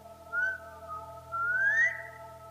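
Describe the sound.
A person whistles a familiar family signal whistle, a short two-part signal with each phrase sliding upward in pitch, clear with no talking, over a steady low background hum.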